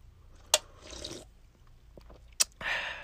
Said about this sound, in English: First, gotta crack a little cold one. Right now, I'm about to sip on some. Let me, let me taste it real quick.